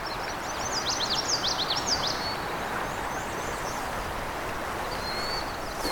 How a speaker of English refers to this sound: There's our indigo bunting again.